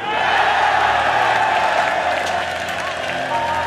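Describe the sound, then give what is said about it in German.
The crowd at Mission Control erupts in loud, sustained cheering and applause as a space capsule lands on the water, a dense wash of clapping and excited voices that stays steady throughout. “Mission Control versinkt im Jubel. Alle springen auf, umarmen sich, jubeln.”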